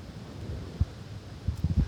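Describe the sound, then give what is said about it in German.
Outdoor wind rushes steadily on the coast in hot, sunny weather, freshening a little, with a few low, rumbling gusts buffeting the microphone near the end. No one speaks. “Und der Wind frischt da ein bisschen mehr auf.”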